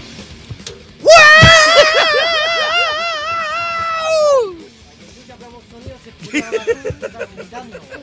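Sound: person screaming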